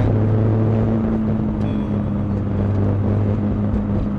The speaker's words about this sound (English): Finally, we got our advanced green. We're going. Everybody's staring at me because I'm driving in a Nissan Skyline,